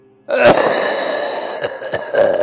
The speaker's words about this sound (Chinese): 突然一声咳嗽在我耳边响起，我突然从恍惚中惊醒了过来，寻找着声音的来源。然后又一声咳嗽传来